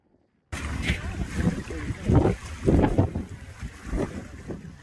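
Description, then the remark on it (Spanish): A helicopter departing over snow, its rotor wind lifting the snow: the rotor throbs in uneven pulses through a loud, rushing, wind-like roar that starts abruptly after a brief silence and stays heavy in the low end. “El helicóptero se va.”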